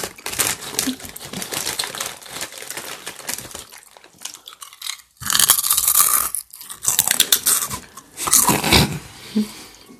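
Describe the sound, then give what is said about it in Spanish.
Crunchy chewing with crinkling, crackly bursts that come in uneven waves, quieter for the first few seconds, then louder and denser after a brief pause, with a faint voice underneath at times. “Vamos a estar así todo el rato masticando.”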